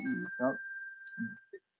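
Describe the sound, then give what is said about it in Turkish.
A phone notification chime rings out as a steady, clear tone lasting over a second, with voices talking briefly over it. “Telefon bildirim sesine gelmiştir.”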